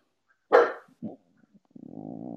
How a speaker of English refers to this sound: Oh, he's going mental. anyway, look, fuck it. if you hear dog barking, then it's my dog